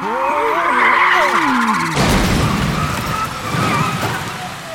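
Tires squeal in shrill, wavering screeches as cars lose control and skid while arriving at a traffic jam, then the sound gives way to a loud, rough rumble of sliding and scraping that carries on to the end, with no voices.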